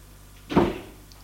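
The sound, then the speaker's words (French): An office door swings open, released by pressing a green button after someone rings, with a single short burst of wooden creak and rattle that fades quickly. Only faint room noise surrounds it, and no one speaks. “La porte s'ouvre.”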